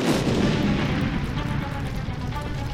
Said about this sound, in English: Wren Qualheim put the first call through, but before the truck had even left the depot, the first explosion rocked the building.